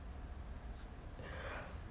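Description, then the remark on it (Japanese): A soft, breathy yawn, one long drawn-out airy exhale that swells toward the end, fairly quiet, with no talking. “ああくびです”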